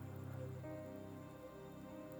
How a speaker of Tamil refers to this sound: இன்னைக்கு நான் மழை பெய்ஞ்சு மழை பெய்யும் போதே எடுத்து தான் வந்தேன் கோயம்புத்தூரில் ரெண்டு பக்கம் பில்டிங்ஸ்லாம் இருக்கனால அந்த லைட்லாம் கீழே ரிஃப்ளெக்ட் ஆகுது கீழே தரை ஐ மீன் ரோட்டில் மழை பெஞ்சு